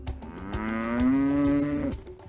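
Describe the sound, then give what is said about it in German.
A single long cow moo, loud, swelling into a sustained low bellow that holds for about two seconds before breaking off, with faint clicks of other farm noise behind it. “Aber die Währung macht Mu”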